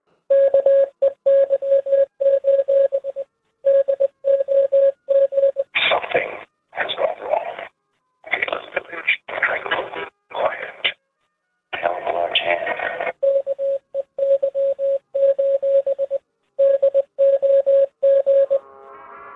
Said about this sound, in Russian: Посчитав их, у них получился телефонный номер, а позвонив по нему, они услышали сообщение на азбуке Морзе.